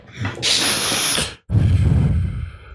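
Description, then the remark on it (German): Two loud breaths blasted straight into a microphone: a long hissy inhale, a brief silent gap, then a rough, rumbling snort-like exhale, with no talking. “Bei ihm hört man das Schnaufen.”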